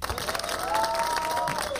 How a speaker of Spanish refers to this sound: Ay, esos, esos, esos, aplausos no los puse yo, así empieza el programa. Tienen, como, tienen como tres güeyes ahí aplaudiendo, güey. No tienen público.